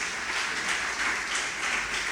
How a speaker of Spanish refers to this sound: Dale un fuerte aplauso al Señor, hermano.